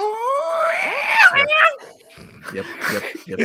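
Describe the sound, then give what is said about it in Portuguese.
A person imitates the neighbours' stray cats yowling at two, three or five in the morning, a rising, wavering high-pitched wail lasting over a second, followed by a few shorter strained cries and bursts of talk-like vocal noise. “Mas às vezes são duas e três e cinco da manhã e ouvimos aos berros.”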